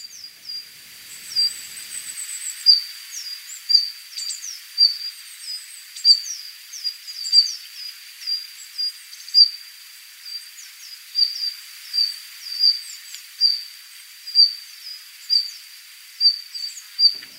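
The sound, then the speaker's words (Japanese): Arctic warblers give short, sharp call notes again and again, about one each second, over a steady high-pitched drone, calling to each other as they move from branch to branch in a cherry tree on Kamishima island, picking insects off the tree during migration. No one speaks. “メボソムシクイは目の前にある桜の木の中を枝移りしながら泣き合っています桜についた虫を見つけてはついばんでいます”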